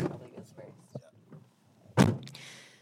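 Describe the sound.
A red pickup truck door swings shut with one solid thunk in Chittenden on a cloudy Tuesday, preceded by faint murmuring voices and followed by a brief airy rustle.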